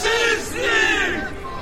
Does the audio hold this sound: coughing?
no